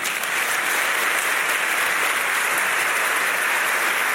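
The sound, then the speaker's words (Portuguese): A large church audience applauds steadily on Bible Day to honour a group of men and women who spread the word of God, a dense, sustained wash of many hands clapping loud, with no break and no voices rising above it. “Vamos aplaudi-los.”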